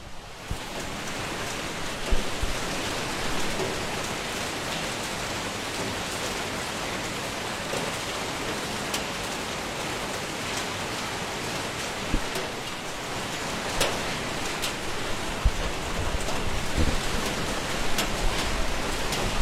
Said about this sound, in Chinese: 哦，现在外面的雨声小了好，小了一点了。每天晚上能听一听那这雨声的话，估计的话，很多人都不会失眠。